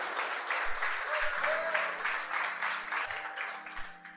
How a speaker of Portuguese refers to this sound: Pode aplaudir mesmo a ele.